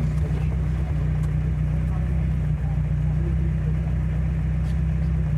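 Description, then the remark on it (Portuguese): A car engine, with someone seated at the wheel accelerating, runs with a loud, steady low rumble and a constant droning hum, continuous throughout, with no clear rise in pitch. “Não, então, você vai sentar aqui e vai acelerar”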